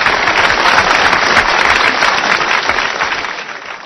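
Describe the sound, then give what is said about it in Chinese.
An audience applauds eight men standing up at the event, with dense, steady clapping that stays loud and even for nearly four seconds before easing off slightly at the end. No one speaks over it. “来，大家给他们热烈掌声鼓励一下。”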